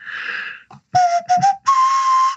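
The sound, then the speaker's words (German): A breathy nose flute plays a short melody, the Indiana Jones movie theme: a hissy opening, then a few quick whistly notes, and a final long, steady, slightly higher note held to the end, with no talking. “Auch danke, dass das so schnell kam, weil als nächstes wäre der hohe Ton gekommen und das ist mit einer Nasenflöte sehr schwer.”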